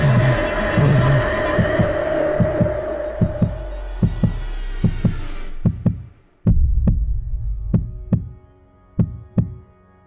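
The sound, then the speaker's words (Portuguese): A steady heartbeat sound effect thumps in a regular, quick rhythm, deep, at first over a dense noisy wash that cuts out partway, leaving the beats nearly alone. “Essa coisa que te corrói e você só sente essa dor em seu coração batendo.”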